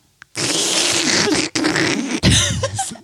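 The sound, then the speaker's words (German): A person makes a loud, raspy sucking noise with their mouth, imitating a sucking motion: a wet sputtering hiss lasting nearly three seconds, broken into three bursts by two brief pauses. No one speaks. “Es ist mit Saugen, also es ist eine Saugbewegung.”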